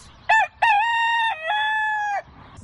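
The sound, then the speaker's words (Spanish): A rooster crows once, loud: a short opening note, a brief break, then a long sustained call that wavers slightly before cutting off, with no other sounds around it. “escuchas cuando te dicen batalla de gallos?”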